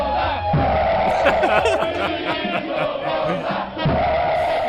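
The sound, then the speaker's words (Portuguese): A large crowd of fans chants a rhythmic war whoop, many voices rising and falling together in a loud, continuous roar that carries across a stadium. “Parece um peru, ah, né?”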